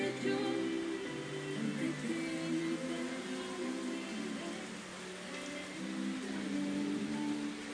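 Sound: rain falling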